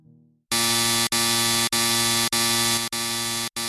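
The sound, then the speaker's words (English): A harsh, loud house alarm siren blares in a string of five or six long buzzing bursts separated by brief breaks, piercing, with a faint low tone just before it starts. “Suddenly the alarm siren emits a deafening sound, the flashing lights begin to flash, I feel that he is here.”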